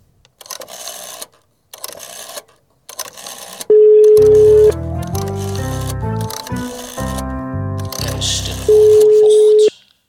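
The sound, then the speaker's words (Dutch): Telephone dialing tones, loud, as a phone call is placed: a steady electronic tone, then a run of shifting beeps and pitches, then the steady tone again. A few short noisy bursts come first. “Dan moeten we Joris Roelofs even bellen”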